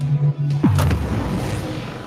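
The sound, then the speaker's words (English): A loud, synthetic dubstep-style cannon effect: a steady low bass hum suddenly swoops downward with a bright, noisy blast, then a deep rumbling tone lingers and fades. No one speaks. “That sounds like the dubstep cannon.”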